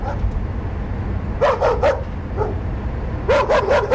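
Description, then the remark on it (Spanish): A dog barks in two quick bursts, three or four sharp barks each with a lone bark between, over a steady low rumble of background noise. “...no sabía que los perros te odiaban tanto...”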